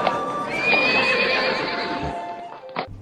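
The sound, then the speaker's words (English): A horse whinnies loudly, a long shrill neigh that rises and wavers over a busy outdoor town square ambience, with a few clopping hooves near the end. “Hear that? Something's going on in the town square.”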